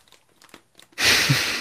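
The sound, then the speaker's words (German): A plastic bag of old, scratched 2x4 LEGO tiles crinkles loudly, a sudden burst of rustling and rattling after a second of quiet faint handling noises. “Die sind nicht nur in der Tüte ein bisschen geschüttet ja. worden aber die Tüte sieht völlig okay aus.”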